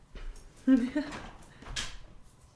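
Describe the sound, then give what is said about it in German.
A dog that wants to go outside whines in short, high, nasal bursts, with people talking around it and a soft knock or shuffle in the background. “Ich glaube, dein Hund möchte ja. raus.”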